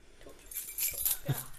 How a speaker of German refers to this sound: Da ist alles dran, der Fahrstuhlschlüssel, Generalschlüssel, Stromkastenschlüssel. Also dieser Schlüssel ist, dieser Schlüsselbund ist so wertvoll. Damit kann man alles in der Schule machen.